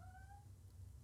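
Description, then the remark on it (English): A single short, high meow from a female pet cat rises briefly over a low, steady background hum and fades quickly, leaving only quiet room tone. “It's kind of like how, um, apologize for my cat.”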